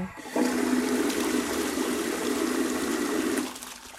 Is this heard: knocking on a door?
no